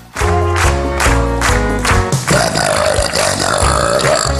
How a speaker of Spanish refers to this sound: Una participante de una especie de gortal en brasileño, una chica monísima, guapísima, finísima y que cantó con eructos.